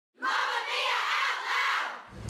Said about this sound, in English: The sounds of New York are in the background.